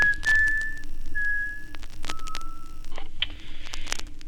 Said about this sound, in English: Little whistle.